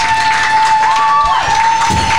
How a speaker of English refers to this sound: So man, before we close out, y'all give my boy a round of applause for his birthday, man.